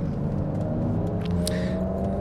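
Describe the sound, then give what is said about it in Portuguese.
A Subaru car engine revs loudly, a deep steady rumble with layered droning tones that swell slightly as it goes past, filling the whole moment with no voices. “e lá vai o Subaru ainda de novo.”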